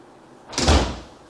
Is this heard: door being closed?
yes